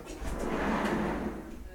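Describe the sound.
A large white albino dog's tail thumps against furniture in a few soft, dull knocks over a steady rumbling scrape, with a faint murmur of voices in the background.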